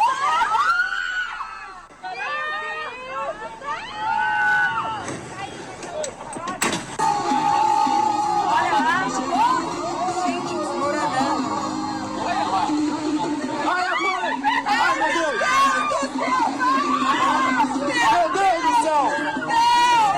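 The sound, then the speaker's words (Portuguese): A crowd of tourists screams and shouts in alarm, warning the sailors on motorboats to move away after a rock struck a boat in a canyon with emerald-green water; many voices overlap loudly and continuously, with frantic yelling rising over a steady background rumble. “Impotentes, os turistas somente podiam gritar para que os marinheiros das lanchas de lá se afastassem.”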